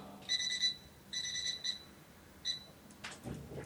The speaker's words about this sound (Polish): Alarm mi się włączył, przepraszam bardzo.